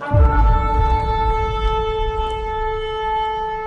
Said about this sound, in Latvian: Un varena stipra bazūnas skaņa.